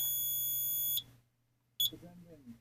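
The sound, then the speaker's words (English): A new electronic countdown timer emits a long, steady high-pitched beep, falls silent, then gives one short beep before someone starts talking quietly. “Tried to start my timer and now it's not working.”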